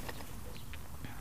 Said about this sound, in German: Und äh, du hörst es vielleicht, ich bin heute draußen in der Natur. Ich habe hoffentlich ist von der Kulisse ein bisschen was zu hören. Es ist so ein herrlicher Sommerabend